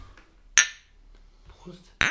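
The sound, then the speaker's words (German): Two sharp glassy clinks about a second and a half apart, like Füchschen Alt beer bottles knocked together in a toast, bright, with faint murmuring voices in between. “Ähm, dann stoßen wir kurz Prost. an.”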